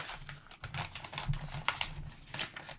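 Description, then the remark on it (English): A candy wrapper being unwrapped, with continuous crisp crinkling and rustling that comes in uneven bursts for a few seconds. The sound is fairly soft, and no one speaks. “Unwrap those candies now. Unwrap them now.”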